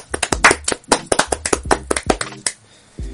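A short burst of audience applause: sharp, irregular hand claps tumbling over one another for about three seconds, fairly loud and with no voices, thinning out near the end.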